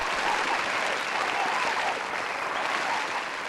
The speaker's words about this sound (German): Der Applaus, den ich jetzt hier ähm, per Tonspur einspiele, der gebührt nur euch.